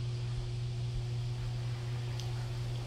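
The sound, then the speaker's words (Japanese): A washing machine runs steadily, a constant low mechanical hum with a broad whooshing wash of noise, moderately loud and unchanging throughout, with no voices. “洗濯機うるさいかなまあいいか”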